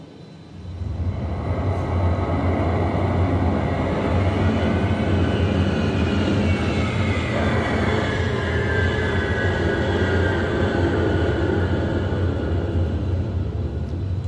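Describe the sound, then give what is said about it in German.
The lower of two airplanes, cleared by the tower, comes in to land with a steady, loud engine roar, a deep rumble underneath and a faint whine sliding in pitch. There is no talking. “Der untere Flieger hat jetzt Landefreigabe und setzt direkt zur Landung an. Da kommt er rein.”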